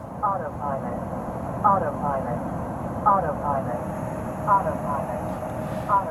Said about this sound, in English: Uh, and so we just heard the the autopilot aural warning going off over and over and over uh, and later, I actually took a recording of it, so it sounds like this.